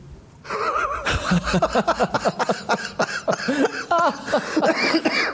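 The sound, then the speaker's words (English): A persistent fit of coughing from a chest infection that turned out to be pneumonia, with many rapid bursts following one another over several seconds, some with a rough, voiced edge, and no talking. “Right, so I've had a chest infection for I five picked weeks. Up on that cough, I didn't realise.”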